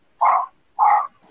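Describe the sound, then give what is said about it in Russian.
Two loud dog barks about half a second apart, each short and punchy, with a faint trailing sound after the second and no talking. “А у кого собака?”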